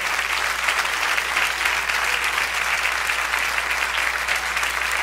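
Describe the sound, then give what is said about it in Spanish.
Steady, sustained applause from a crowd giving an applause to the Lord, a dense wash of clapping that holds at an even loudness for several seconds without any talking over it. “Denle un aplauso al Señor ahora.”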